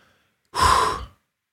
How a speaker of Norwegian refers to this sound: Pust med magen, så du får kontroll. Det er bare stopp opp.